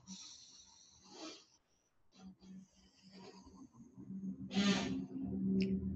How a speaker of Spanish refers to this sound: Sino es respirar. Respira profundamente.